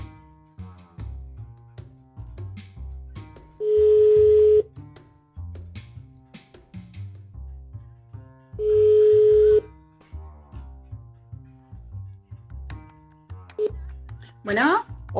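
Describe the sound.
A telephone line tone sounds twice, each steady beep lasting about a second and spaced several seconds apart, clear and fairly loud over continuous low background voices or music.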